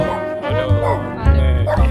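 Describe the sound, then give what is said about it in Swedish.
A dog barks repeatedly, a few loud, yappy barks in quick succession with a whiny, whimpering edge between them. “Hunden igång igen.”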